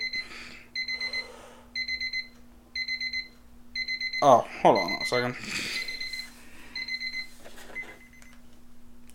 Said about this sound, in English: That was my timer. I need to go and, uh, yeah, once again, meal prepping my foods.